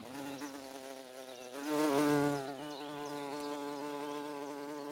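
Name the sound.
bumblebee buzzing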